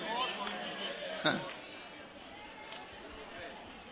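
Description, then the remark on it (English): A church audience shouts "amen" together during a Christmas-time sermon, a loose chorus of overlapping voices with one sharper shout near the start, blending into a steady murmur of crowd babble. “I was surprised that you were shouting amen.”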